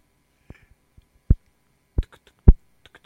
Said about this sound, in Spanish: ¿Hay alguien caminando dentro de la consola? ¿Sí oyes como, como un tronido, güey? Algo le está pegando a los micros, güey, a ver.